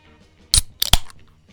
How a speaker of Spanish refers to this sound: El sonido de la gloria. Abriendo una cervecita para comenzar este rico podcast.